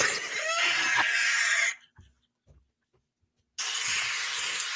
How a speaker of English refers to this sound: an Eagle.